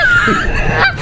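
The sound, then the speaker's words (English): Loud honking from geese, a couple of harsh nasal calls running together over about a second, with no talking. “Belching geese.”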